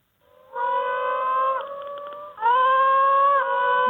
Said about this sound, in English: So moaning frogs are they around Perth as well? Yes, they are. Um, mm. they, probably the museum gets more phone calls for the for the moaning frog than any other frog, and it kind of goes like this.